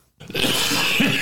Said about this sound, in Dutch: Gezondheid.